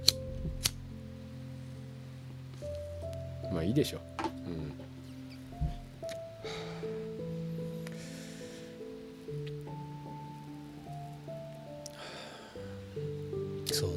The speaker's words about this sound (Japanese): まああとはまあこれはねあのあの映画見てるとね非常にタバコ吸いたくなるんですよねうんでタバコって言ったらあちょっと僕もタバコ吸おうかな